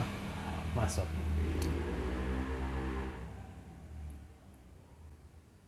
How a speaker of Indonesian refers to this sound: sorry jendela kebuka jadi suara motor